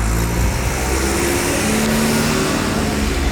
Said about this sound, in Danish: Der kørt lige en traktor.